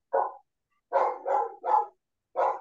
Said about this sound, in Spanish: Sí, tengo un perrito acá que se vuelve loco con los... Cualquier perro que pase.